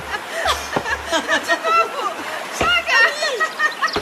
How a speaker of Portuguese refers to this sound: Enquanto o sol a secava, Nausicaa e as escravas cantaram, dançaram e jogaram bola. Quando a bola caiu no rio, elas gritaram e Ulisses acordou com o barulho.